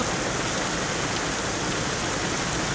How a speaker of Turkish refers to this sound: Son 75 yılın en sıcak Mayıs ayını yaşayan Antalya'da hava sıcaklığı 16 derece birden düştü. Döşeme altını sağanak yağış ve dolu vurdu.